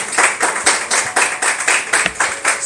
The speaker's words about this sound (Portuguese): Dê uma salva de palmas para o Senhor Jesus.